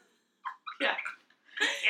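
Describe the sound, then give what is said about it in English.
A voice imitates an old laptop's grinding noise when it is turned on, with a few short, raspy, hissing bursts, then a longer harsh grinding stretch. Fairly loud, with no other sound. “it sounds like this horrible shuffle grinding noise”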